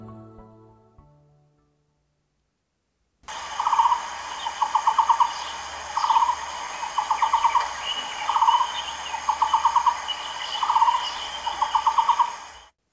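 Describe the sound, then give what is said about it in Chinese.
The county bird of Hsinchu County repeats a hollow, mid-pitched knocking call like a monk tapping a wooden fish or a rolling waterwheel, loud rhythmic bursts of rapid notes recurring about every two seconds over a soft steady hiss. “有人形容它的声音像和尚敲木鱼，或是水车滚动的声音。”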